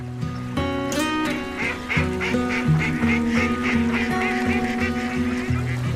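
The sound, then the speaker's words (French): A duck quacks over and over in a fast, steady run of loud, nasal calls that continue for the whole stretch, with no talking. “Oh, canard Qu'as-tu fait au Seigneur pour mériter un tel sort”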